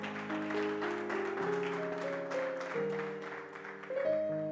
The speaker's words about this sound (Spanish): Y si eso es así, darle un aplauso al Señor en esta mañana.